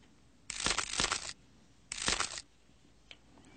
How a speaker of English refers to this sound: Tears flowed from the prince's empty eyes. And a cracking sound came from deep within his body.